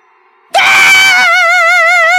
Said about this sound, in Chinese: 哇啦一声子，撕心裂肺的哭啊！